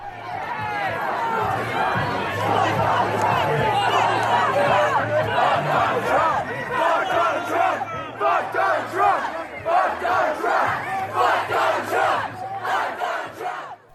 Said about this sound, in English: That's the sound of students protesting from election night 2016, a spontaneous demonstration that may be considered a violation of university policy if new rules concerning protest regulation are approved by the Faculty Senate.